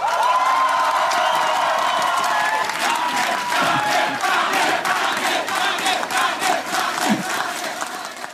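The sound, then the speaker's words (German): A large crowd at the CDU election night party in Schleswig-Holstein cheers the party's state election win, loudly and continuously, with shouts, whoops and scattered clapping blending into a dense, sustained roar that barely dips over several seconds. “Ja, wir hören's. Gute Stimmung gestern Abend bei der CDU in Schleswig-Holstein.”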